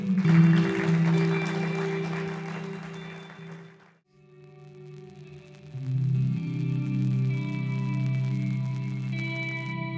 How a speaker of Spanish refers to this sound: ¿Puedes darle un aplauso a Él?